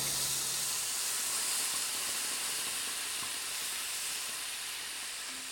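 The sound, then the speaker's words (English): Meat for chilorio sizzles in a pan with apple cider vinegar, white onion, garlic, parsley, oregano, cumin and black pepper, a steady, bright hiss that stays loud and unbroken for several seconds, with faint crackles underneath and no voices. “And then you just let that cook until the liquid has become very thick and the meat has really absorbed it.”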